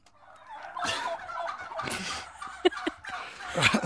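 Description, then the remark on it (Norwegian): Several voices imitate clucking hens, overlapping in a lively chorus of squawks and clucks that rises and falls over a few seconds, with a sharper burst near the end. “Nå er dere halvt høner.”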